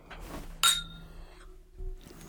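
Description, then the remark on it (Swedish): A single bright clink of glasses of sparkling wine with elderflower cordial and mint touching in a toast, fairly loud, its high ringing tone fading over about a second amid soft background rustling. “Okej, okay. skål. Skål.”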